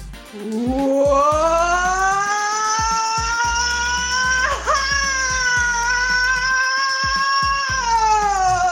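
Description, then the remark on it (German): A long, loud, high-pitched rollercoaster-style scream of joy from a radio listener in the Perg district, rising at the start and held for about eight seconds with a brief wavering break midway, over a low rumbling background. “Jubelschrei wie auf der Achterbahn”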